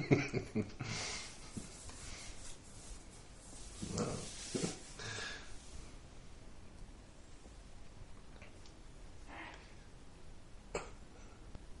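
A sneeze bursts out at the start, followed a few seconds later by a second short, explosive burst. Both are fairly quiet against a soft background, with no talking.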